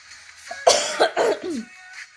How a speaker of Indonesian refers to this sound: bentar dulu mau batuk lagi